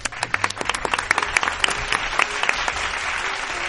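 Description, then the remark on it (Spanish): A group claps steadily for a few seconds, a dense patter of hand claps that starts with sharper individual hits and settles into a continuous round of applause. “Muy bien, pues aplauso para”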